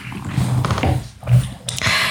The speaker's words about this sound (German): Was machst du da eigentlich? Den Hund davon abhalten, hier mit seinem Stöckchen gegen den Tisch andauernd zu hauen. Das ist Stöckchen, das ist schon ein ziemlicher Ast. ja, aber wenn er springt, hört man das und er grunzt dann dabei.